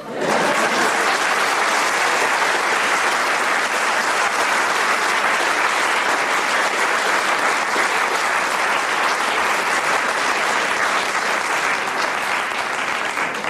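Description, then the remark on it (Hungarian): Sustained audience applause, a dense wash of many hands clapping at steady loudness for about thirteen seconds with no voices over it. “Na most tessenek egy nagy tapsolni.”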